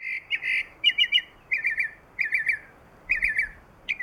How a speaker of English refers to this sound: Except the whole aesthetic of that species, the whole ethos of what it means to be a mockingbird involves having an incredibly complicated, ornate, unusual, weird song. That's just what that bird is about.